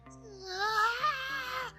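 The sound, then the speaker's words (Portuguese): A voice imitates a schoolboy's short, whiny little scream as a teacher grabs his arm, a high wavering cry that swells and then trails off, fairly loud, with no other talk. “Aí o moleque já deu aquele gritinho, né?”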